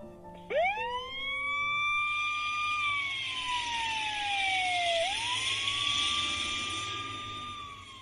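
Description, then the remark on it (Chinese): The siren of an arriving fire engine with small red lights flashing winds up sharply into a loud, steady wail, slowly sinks in pitch, then climbs back up and holds. No one speaks. “消防车闪着小红灯跑来了”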